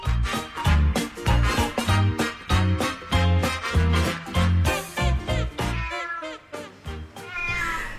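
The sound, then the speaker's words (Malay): A cat meows loudly and insistently, a rapid string of harmonic cries that ends in a longer, rising wail. No one speaks. “Eh, Cari tempat lain lah kucing oi.”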